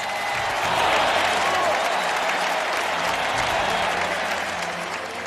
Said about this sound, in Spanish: Esta otra ovación es también para las redes sociales, o mejor, para quienes las manejan.